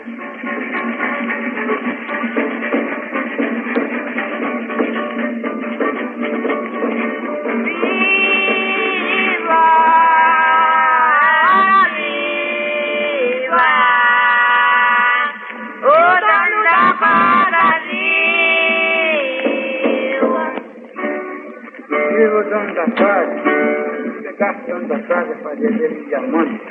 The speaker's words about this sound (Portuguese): É nesse sentido que o reizado se relaciona com o Bumba Meu Boi, o qual é uma forma musical muito comum ao norte e nordeste brasileiros. Vamos ouvir a toada hora viva, música do gênero Bumba Meu Boi.